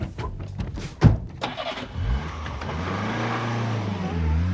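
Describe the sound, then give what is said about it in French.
A car engine cranks with a few sharp starter bursts, then catches and settles into a steady, rumbling idle with a slight rise in revs. No voices. “et pas dans le studio la bagnole, t'as pas le permis encore.”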